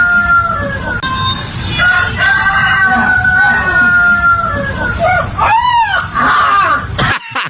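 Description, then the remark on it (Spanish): A white puppy that grew up with chickens lets out a long, wavering, crow-like howl, imitating a rooster's cock-a-doodle-doo, loud, with rising and falling squeals before cutting off abruptly. “o sea, el perrito quiere hacerle como el gallo.”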